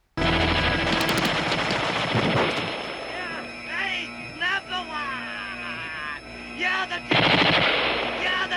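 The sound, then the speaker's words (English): Loud, rapid M60 machine-gun fire rattles in a long opening burst in a film scene, as Donald Pleasence's character fires on the Duke. It gives way to shouting voices, then erupts again in another sustained volley near the end. “and then all of a sudden Donald Pleasence comes out with an M60 and just fucking lays waste to the Duke.”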